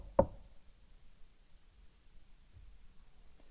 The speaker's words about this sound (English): After having been driven away, he comes and he stands at the door and he knocks.